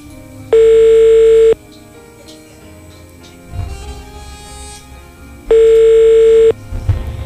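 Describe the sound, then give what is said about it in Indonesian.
An outgoing phone call's ringback tone: two loud, steady one-second beeps spaced about four seconds apart, with faint background noise in between and no talking. “ntar ya kita telepon dulu nih nggak ada namanya nggak apa-apa tersambung”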